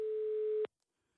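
A steady, mid-pitched telephone call tone holds for a little over half a second as a call is placed to the news editor of the Danish Chess Union's website, then cuts off abruptly, leaving near silence.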